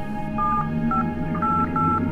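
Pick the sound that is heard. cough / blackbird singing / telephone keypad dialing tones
telephone keypad dialing tones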